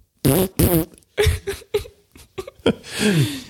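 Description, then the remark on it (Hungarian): A rapid series of loud fart sounds, some short and sputtering, others longer and buzzy, ending with a drawn-out squeaky one that drops in pitch. No one speaks. “Azt mondják, a fiúk sose nőnek ki a pukizás öröméből.”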